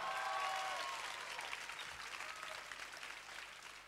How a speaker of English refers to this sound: Clap your hands and shout if you believe it.